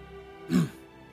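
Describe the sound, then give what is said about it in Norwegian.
A single short throat clearing from someone a little further around a campfire, moderately loud, a quick gruff rasp standing alone against a quiet, steady background hum. “Og idet du gjemmer den, så hører dere et eh, kremt fra si, litt videre rundt bålet.”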